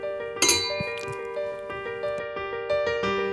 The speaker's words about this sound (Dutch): Dan schenk ik jou nog de Moet in. En dan eh, klinken wij nog op het moment.